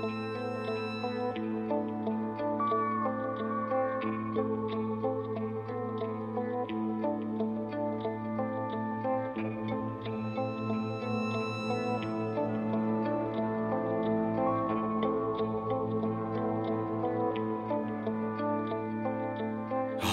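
A song played to close the program plays at a steady, fairly loud level. Its instrumental opening is built from sustained harmonic tones and layered accompaniment, with no voices over it.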